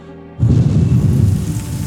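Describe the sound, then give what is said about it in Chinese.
After a brief silence, a loud rushing gust of wind bursts in with a deep, rumbling roar and keeps blowing steadily to the end, with no voices; it is the big bad wolf blowing hard at the straw house and knocking it down. “大野狼嘿嘿嘿嘿的冷笑了两声，狠狠地吹了一口气，”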